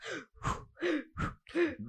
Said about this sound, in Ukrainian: дихання, щоб було так.